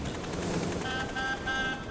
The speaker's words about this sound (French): Il y eut un gros bruit derrière eux, comme le son d'un vieux klaxon.